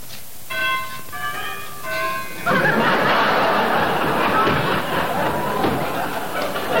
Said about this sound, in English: I walked up to the cottage and rang the bell.